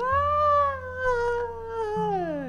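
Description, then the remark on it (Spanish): A person's voice imitates a drawn-out, anguished, heart-rending scream heard when looking out a window, one continuous wail that rises slightly then slowly sinks over a couple of seconds, fairly loud over a low steady hum. “Y no sé cómo nos dio por asomarnos a la ventana y se empezó a escuchar así un grito así muy desgarrador, así de...”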